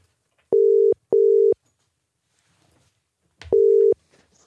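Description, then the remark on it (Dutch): A phone call ringing out: a steady, mid-pitched ringback tone sounds in a quick double burst, pauses, then repeats once more, with no voices. “Eh, dus belden we even met eh,”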